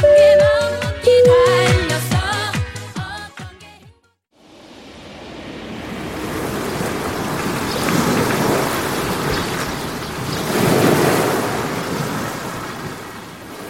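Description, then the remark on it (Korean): A few seconds of music cut off, then ocean waves roll onto Kamari Beach on Santorini, Greece, a beach of black volcanic sand, in a steady roar, swelling twice as bigger waves break and wash in. “그리스 산토리니의 카마리 해변에 도착했습니다 아, 파도가 밀려옵니다.”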